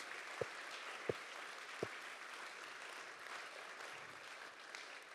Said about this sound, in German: Lasst uns unseren Seniorenmann einen riesen Applaus geben. Dankeschön, dass es euch gibt.